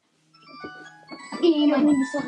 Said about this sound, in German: Und jetzt klingelt einfach mal das Handy hier. Äh, bis ähm. gleich. Ja, also sorry, wirklich. meine Mutter. Also, wirklich. Drückt hier einfach nicht sein Handy aus.